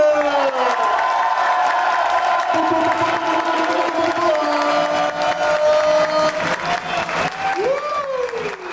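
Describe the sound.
A crowd claps and cheers loudly and steadily for several seconds, with whoops and raised voices rising above the dense applause.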